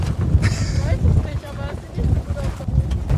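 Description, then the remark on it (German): Strong wind buffets the microphone in a continuous low, gusty rumble outdoors as stormy weather approaches, with voices murmuring faintly underneath throughout. “Ich glaube, wir äh, müssen äh. umziehen, weil das wird zu windig.”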